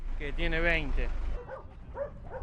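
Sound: dogs barking and yipping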